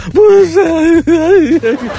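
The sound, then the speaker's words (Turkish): A voice imitates someone sobbing on the phone, too choked with crying to talk: about two seconds of wavering, whimpering cries broken by short catches of breath, fairly loud, with no clear words. “Ağlamaktan konuşamaz.”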